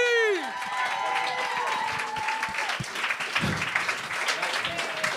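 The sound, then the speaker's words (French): An audience at a live show breaks into steady, lively applause that fills the whole stretch, with a few scattered cheers, as the next guest is introduced, after a brief falling musical sting at the very start. “On applaudit!”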